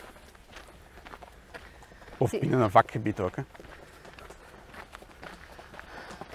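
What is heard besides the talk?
horses' hooves clip-clopping past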